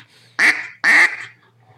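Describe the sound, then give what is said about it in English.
Two loud, raspy quacks blown on a Jargon Live Duck duck call, about half a second apart, with nothing else but a faint low hum in between. “This is the Jargon Live Duck.”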